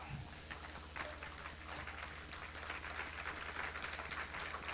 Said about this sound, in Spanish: Yeah, y a veces que se oyen mejor los aplausos ahora sí, aleluya.